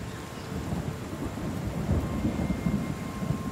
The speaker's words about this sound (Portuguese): Porém, a chuva começou a cair.